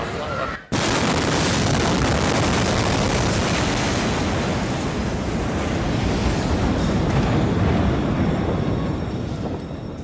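A massive explosion in the warehouse at Beirut harbour bursts in after a split-second dropout, about 30 seconds after a smaller explosion, then a loud, continuous roaring rumble fills everything for about nine seconds, dense and unbroken across low and high tones.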